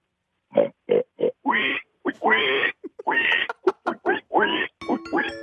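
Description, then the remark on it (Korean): A person imitates a pig, letting out a quick run of about ten loud grunting oinks in an uneven rhythm, with brief gaps between them and no other talk. “예, 돼지 소리요.”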